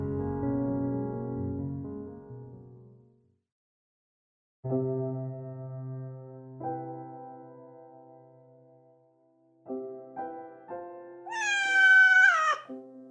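A cat meows several times, with long drawn-out cries separated by brief pauses, ending in a louder, higher-pitched wailing meow. No one speaks.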